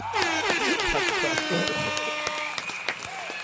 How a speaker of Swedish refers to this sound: jag tycker du är värd en applåd och en tuta också för att det krävs ändå lite kreativitet och fantasi för att snickra ihop det här.